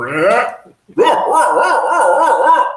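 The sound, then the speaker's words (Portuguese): A person imitates a barking dog with a loud voice: a short yelping burst, a brief pause, then a longer wavering, howl-like run of barks. “É um cachorro latindo isso aí?”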